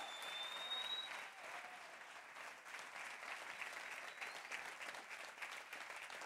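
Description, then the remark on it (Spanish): An audience applauds the Lord steadily, a dense wash of many hands clapping at once that holds at an even level throughout, with no voices standing out above it. “Vamos, aplauda al Señor.”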